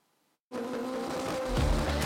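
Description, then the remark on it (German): After a brief silence, loud tuned car engines burst in and roar steadily at a tuned-car show at the Lausitzring racetrack, with a deep rumbling surge near the end as one revs harder. “Der Lausitzring an der akustischen Belastungsgrenze. An diesen Tagen ist hier alles noch schneller, lauter und extremer.”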